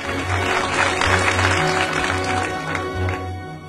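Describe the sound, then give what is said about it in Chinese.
A crowd bursts into sustained applause, many hands clapping in a dense, steady wash that stays loud throughout with a faint low hum underneath. “很快，掌声响起一片。”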